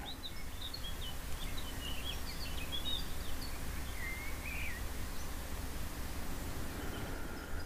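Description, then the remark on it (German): Birds chirp and twitter faintly in scattered bursts over a steady hiss of forest ambience, with no one speaking. “Hör nochmal, wie fröhlich die Vögel zwitschern.”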